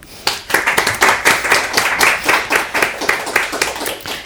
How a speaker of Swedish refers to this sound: Varmt välkomna, en applåd för dem.